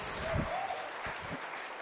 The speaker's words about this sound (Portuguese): Vocês podem dar um aplauso bem forte pela vida deles? Glória a Deus.